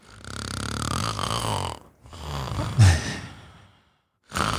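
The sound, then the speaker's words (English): A voice imitates the deep, rumbling snoring breaths of someone falling asleep, three long noisy inhale-exhale cycles with short pauses between them and a louder rasping burst in the middle. “They start revving quite high, they start breathing quite deeply.”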